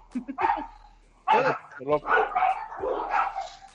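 Several dogs bark in quick, overlapping bursts, loud and excited, with a few higher yips mixed in and a brief lull partway through.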